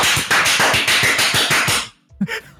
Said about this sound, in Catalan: Doncs bueno, pues, molt bé, que dir un aplaudiment. Vinga, Va. cap a casa. És el teu aplaudiment.